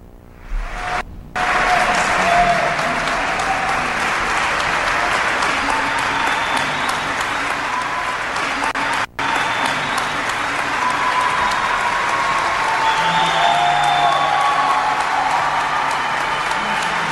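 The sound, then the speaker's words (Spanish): Staff of Hospital México in Costa Rica applaud a nurse who survived COVID-19, steadily for over fifteen seconds, the dense clapping holding an even loudness after a brief pause near the start, with faint cheering mixed in. “era el personal del Hospital México que le aplaudía a ella y se aplaudían ellos.”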